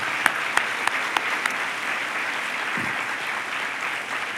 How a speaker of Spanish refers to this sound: Gracias a Dios por habernos sostenido. Den un aplauso a Él.